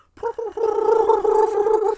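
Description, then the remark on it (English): A voice imitates the movie sound effect of piranhas swimming, making two quick gurgling bursts and then a sustained, warbling, throaty gargle for about a second and a half, fairly loud, with no words. “that's one of the one of our favorite things about this movie is the fact that when the piranhas are swimming, that's like, the sound effect.”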